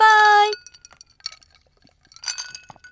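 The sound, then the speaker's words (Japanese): Cups of Takahashi Shuzo's Shiro drink clink together in a toast, a bright ringing chime at the start followed by scattered light taps and a second shorter clink, fairly loud with no talking. “それでは、白杯で乾杯”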